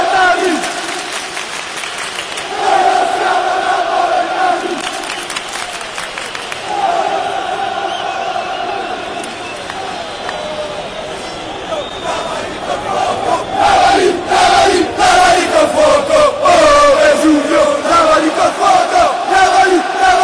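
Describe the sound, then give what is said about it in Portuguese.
A large stadium crowd of Juventus football fans chants a sung melody in unison in Italian, taunting Naples by calling on Vesuvius to wash the Neapolitans with fire, loud and echoing, with rhythmic clapping or drumbeats growing stronger in the second half. “E depois eles falam: Vesúvio lava eles com fogo. Ficam torcendo para que o, a erupção aconteça o mais rápido possível.”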